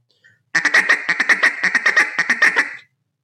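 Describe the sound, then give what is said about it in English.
A duck call blown with voice, giving a fast, steady run of about a dozen raspy, buzzy quacking notes over two seconds, fairly loud and with no talking. “Versus if you hear the voice come out”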